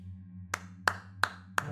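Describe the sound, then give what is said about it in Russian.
A patron applauds: one person claps four times, slowly and evenly spaced. Each clap is sharp and crisp, set against a low, steady hum with no talking. “Меценат аплодирует.”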